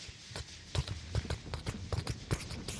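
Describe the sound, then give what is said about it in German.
A voice imitates trotting horse hooves with a quick, steady series of sharp clicking clip-clops, moderately loud, with no talking over it. “Und ich merke, die Mädels lachen laut und reden und ich höre irgendwann nur so, das Trappen wird lauter, lauter, lauter, lauter, lauter.”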